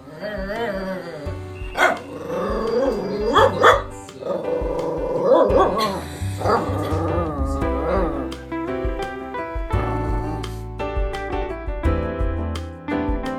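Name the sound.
dog barking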